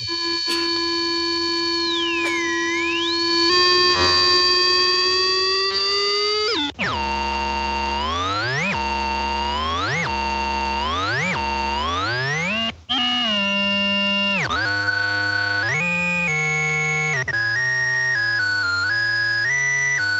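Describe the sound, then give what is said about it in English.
A synthesizer interlude of bright electronic tones: a sustained pitch-bending drone, then rising swooping sweeps, then stepped melodic patterns, played loudly with no talking. “You guys care if I do a synthesizer interlude?”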